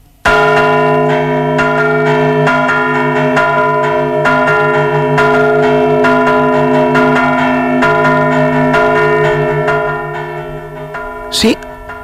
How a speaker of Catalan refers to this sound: també servien i serveixen les campanes per tractar de demanar ajut